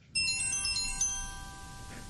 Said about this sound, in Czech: máme problém, protože už nám první telefon zvoní, ano, to znamená, že tak, si vezmeme posluchače.